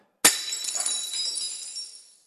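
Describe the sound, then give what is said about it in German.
A plate is deliberately smashed during a sermon with a sharp, loud crack, followed by about two seconds of bright tinkling and scattering shards that gradually die away. No voices are heard. “Oh Scheiße, jetzt sind hier Scherben.”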